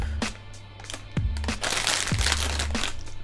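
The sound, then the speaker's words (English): A strawberry pencil sweet packet is torn open, with several sharp crinkly bursts of plastic and a steady low hum underneath, and no voices. “Whilst you're uh, having a strawberry pencil,”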